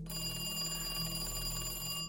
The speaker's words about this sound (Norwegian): Det er en telefon som ringer. Det er hjemme hos banksjef Andreas Lund på Lillehammer. Andreas Lund tar telefonen, og den som ringer, er sjefen hans.